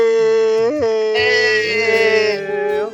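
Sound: dog whimpering and howling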